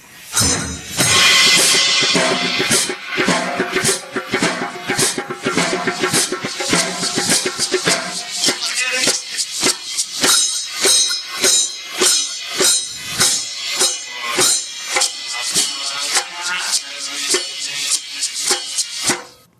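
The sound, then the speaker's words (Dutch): A drum part recorded during an experimenting session plays on its own, with loud, steady, evenly spaced hits and bright cymbal wash at the start, continuing in a driving rhythm for about twenty seconds without any voices. “Ze gingen een stukje drums eh, opnemen. En dat klonk zo.”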